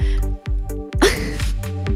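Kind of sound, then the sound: human body sound, sneeze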